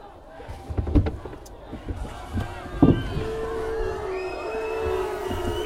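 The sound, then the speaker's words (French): A murmuring crowd fills the background, with scattered thumps and knocks near the start and a steady droning tone rising out of the busy hubbub later on. “À moins que vous ne craigniez la foule.”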